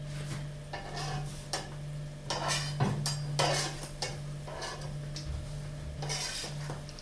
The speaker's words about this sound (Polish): Pierwszy naleśnik się smaży, ponieważ e, do krokietów powinny być niezbyt grube, Rozlewamy ciasto dobrze po patelni i niezbyt długo smażymy, gdyż cienkim naleśnikom o wiele łatwiej jest się przypalić.